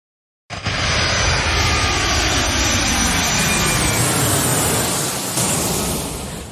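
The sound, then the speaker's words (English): A loud airplane takes off, its engine roar kicking in abruptly and holding steady as a broad, powerful rumble with a high whine on top, no voices present. “That's our best ball team taking off here”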